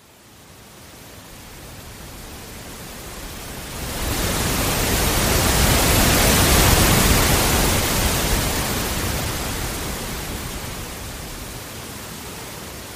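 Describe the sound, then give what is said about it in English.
Ocean waves wash in a steady hiss that swells around the midpoint into a loud, full roar, then slowly ebbs back toward a softer rush. No voices are heard. “He takes us on a jellyfish journey complete with facts, music, musings, and ocean waves.”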